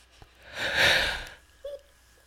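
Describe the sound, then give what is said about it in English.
A single drawn-out yawn, fairly loud: a long breathy inhale that swells and fades, followed by a brief voiced sigh at the end. No talking. “Wow, I just yawned.”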